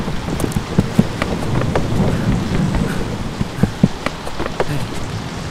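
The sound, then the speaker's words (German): A large wave, the next big one coming from behind a sailing ship with a square sail, crashes amid a steady, loud roar of wind and rushing water, with sharp splashes and thuds breaking through the stormy wash. No one speaks. “Hinten kommt schon die nächste große Welle.”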